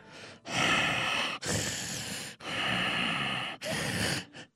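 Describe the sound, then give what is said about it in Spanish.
A person imitates a murderer's menacing snorting, huffing breaths while telling a story: four loud, heavy, breathy bursts in steady succession, with no talking. “Para esto usted ya se dio cuenta que yo soy el asesino porque estoy bufando.”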